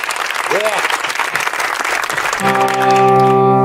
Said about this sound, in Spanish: Fortísimo aplauso para ellos, por favor. La banda.